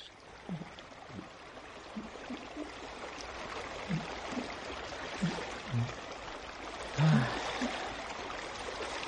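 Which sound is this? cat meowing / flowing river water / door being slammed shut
flowing river water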